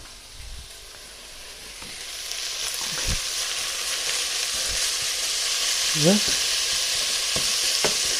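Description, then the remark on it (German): Steady, bright sizzling as cream hits onions in a hot pot, a continuous hiss that swells slightly toward the end, with a few utensil clicks and a brief spoken word. “So, auf den oder in den Topf auf die Zwiebeln.”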